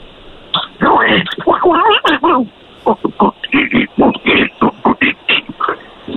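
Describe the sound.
A person imitates Donald Duck's quacking voice, producing loud, squawky nasal babble that starts as a continuous gabble and breaks into a quick string of choppy syllables.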